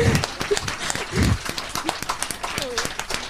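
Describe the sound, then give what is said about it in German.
A crowd applauds with dense, rapid clapping that carries steadily for a few seconds, loud, with a few voices briefly audible underneath. “Oh, ähm, dafür einen Applaus bitte.”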